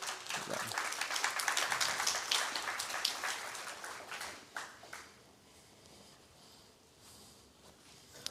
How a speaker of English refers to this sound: So y'all come on up. Y'all clap them up.